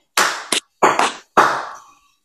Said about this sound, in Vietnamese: cắt thì vỗ tay ba cái này để anh khoa biết này cắt này